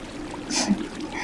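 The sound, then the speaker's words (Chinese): Stream water flows in a steady, noisy wash, with a brighter splashing burst about halfway through and a low, murmuring rumble underneath. No voices. “这是来自土地和溪流的声音。”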